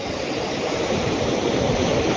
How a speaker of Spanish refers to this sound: No sé si tú estés escuchando las olas del mar, incluso ni siquiera sé si el aire está permitiendo que este audio se escuche bien, pero ojalá, más allá de mi voz